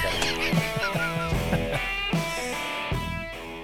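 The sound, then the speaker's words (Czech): A short, upbeat musical jingle plays on its own, with bright, brassy honk-like notes in a bouncy rhythm, tapering off toward the end. “takže můžeme spustit úvodní znělku.”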